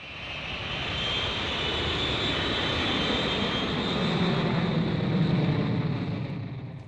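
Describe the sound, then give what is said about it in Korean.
An airplane flying to Paris drones steadily throughout, a broad, continuous roar with a hissing upper edge, swelling slightly toward the end before easing off. No voices are heard. “마리는 아이들을 데리고 파리로 날아간다.”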